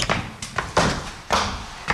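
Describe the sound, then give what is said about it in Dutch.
A series of heavy thumps and knocks on a wooden classroom floor, about five impacts at irregular intervals, moderately loud, with no talking. “Dit is een houten vloer. Maar hij galmt niet door naar de andere lokalen hieronder.”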